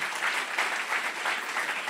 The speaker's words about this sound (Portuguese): Pode aplaudir Jesus. Vamos lá.